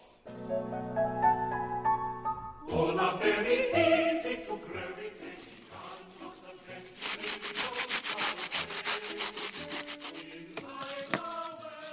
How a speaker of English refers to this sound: You're greeted today with the uh, sound of two very dry loofahs being scratched together actually uh, loofahs, a kind of cucurbit, are suddenly in the news again.